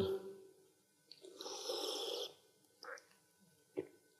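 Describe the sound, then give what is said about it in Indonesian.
A long, airy slurp of a Kafe KD drink lasting about a second, followed by two brief, softer sips or swallows in an otherwise quiet moment with no talking. “Dan sebelum kita menutup acara pada malam, eh, hari ini, kita boleh minum dulu Romo ya. sambil seruput tur.”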